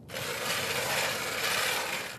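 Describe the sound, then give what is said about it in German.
A hand auger grinds steadily into ice, a continuous scraping rasp that starts abruptly and holds an even, loud level for a couple of seconds with no voices; holes being drilled in the ice in cold weather in rural Estonia. “Trotz bester, dickster Winterkleidung wird es für mich schon nach gut zwei Stunden so richtig frisch auf dem Eis und deshalb fange ich an, Eislöcher zu bohren, nur um mich warm zu halten”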